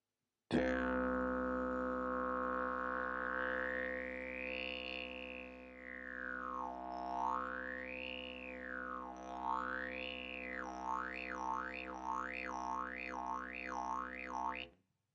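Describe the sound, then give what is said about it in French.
A didgeridoo plays a steady, buzzing drone throughout while a bright, whistly overtone, made by stretching the mouth back as if smiling, glides slowly up and down above it, then bounces faster and faster toward the end. Even and alone. “On garde le bourdon mais on va un petit peu étirer en arrière la bouche comme si on souriait pour modifier le son.”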